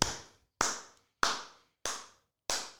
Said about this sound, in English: Hell yeah, there should be more people clapping.